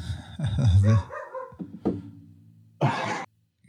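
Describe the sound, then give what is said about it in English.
A dog barks several times in short bursts in the background, with a loud harsh bark near the end followed by a brief pause. No one speaks. “He's just decided to to bark away in the background.”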